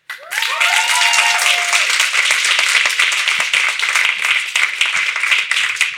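An audience bursts into loud, steady applause for a German rapper, holding for several seconds, dense clapping throughout, with a few brief rising whoops or cheers at the start.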